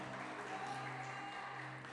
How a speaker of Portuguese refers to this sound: Agora, minha digníssima esposa, vocês podem dar um aplauso ao Senhor pela vida da minha patroa? Glória a Deus.